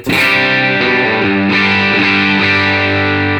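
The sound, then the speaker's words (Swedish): Electric guitar through an amp with moderate overdrive, the gain turned down to 11, strumming a few sustained chords that change every second or so. Loud and full, with no voices over it. “Vad säger du om att dra ner lite gain?”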